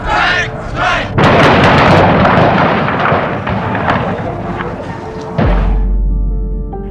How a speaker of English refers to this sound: And all of a sudden, I heard the shooting.